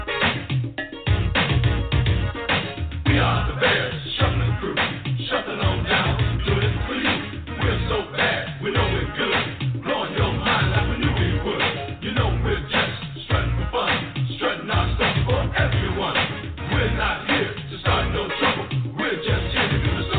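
A 1980s football team rap song plays with a steady, driving beat and dense, muffled instrumentation, loud and unbroken for about twenty seconds.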